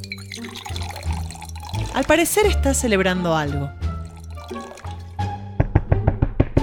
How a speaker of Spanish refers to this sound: Living de una casa. Vemos a una mujer elegantemente vestida sirviéndose una copa de champán.